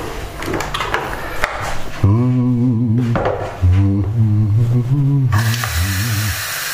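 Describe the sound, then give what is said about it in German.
A Senseo pod coffee machine, already filled with water, heats up with clattering handling noises, then a voice hums a wavering tune before a steady hiss of steam rises near the end. “Und die Kaffeemaschine wird angeheizt. Eine Senseo.”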